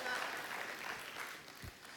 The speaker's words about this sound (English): Yes, you can, you can, two or three, you can clap. It's all right.